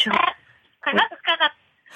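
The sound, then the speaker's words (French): A parrot, heard over a telephone call, squawks in three loud, raspy bursts: a longer call, a short pause, then two quick squawks in succession. “C'est un perroquet Oui, c'est ça.”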